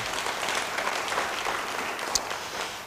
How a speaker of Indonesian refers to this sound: Sekali lagi beri tepuk tangan yang baik bagi dia.